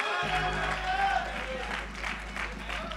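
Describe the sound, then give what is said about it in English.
An audience claps together in a dense, steady wash of hand claps with a faint rhythmic pulse, mixed with crowd voices and a low constant hum underneath, answering the preacher's call to clap their hands and shout hallelujah. “Can you clap your hands and can somebody shout hallelujah?”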